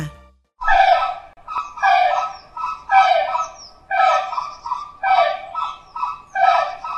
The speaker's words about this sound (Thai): ส่วนตอนนี้ค่ะ พี่โลมาจะให้เจ้านกฟลามิงโกเนี่ยเขามาทักทายน้องๆ ด้วยเสียงแบบนี้ล่ะค่ะ